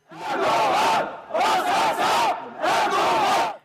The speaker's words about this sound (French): Les manifestants ont commencé à scander le nom de celui qu'ils considèrent comme le commanditaire, puis la tension est montée très vite.